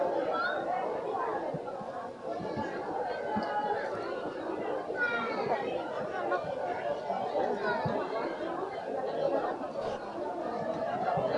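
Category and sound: ambience, crowd chatter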